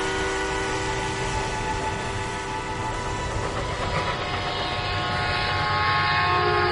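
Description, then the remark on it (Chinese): Another train rumbles past in the distance in a steady, continuous roar, its deep low drone layered with faint sustained whining tones. No one speaks. “远处传来另一列火车的轰鸣声”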